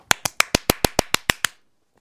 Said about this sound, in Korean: 들으셨어요? 박수 소리? 이거 모기 잡는 소리 아니에요? 박수 소리예요?